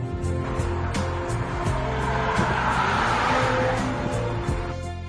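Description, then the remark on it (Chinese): A small six-cylinder car engine runs at high revs, a loud, continuous tonal drone that swells through the middle and eases slightly at the end, with no voices. “但是这台发动机的声音真的是太好听了，尤其是高转速的时候，这种微型六缸发动机特有的声音，绝对不是那种四缸涡轮增压发动机可以比拟的。”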